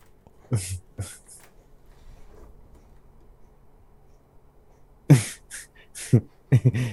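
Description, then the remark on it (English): A cat hacking up a hairball: a few quick, harsh retching bursts, a quiet pause, then a louder run of gagging heaves. “oh, the cat's coughing up a hairball.”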